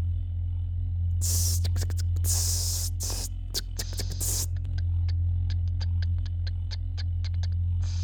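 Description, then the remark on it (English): A voice imitates the ticks and hissing of a brake line being pressurized on a line of cars: loud, bursting hisses come first, then a steady run of sharp, evenly spaced ticks, all over a low constant hum. “And one of them must have been connected to a line of cars because I distinctly remember the ticks and the hissing of a brake line as it was pressurized.”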